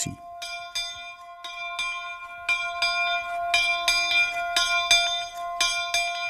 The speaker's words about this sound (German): «Das kann doch nicht sein!» hat er laut gesagt. «Das kann doch kein Feueralarm sein, wir haben doch heute das Alarmtelefon!»